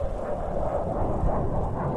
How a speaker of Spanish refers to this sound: yo a lo lejos escuché el ruido de un avión.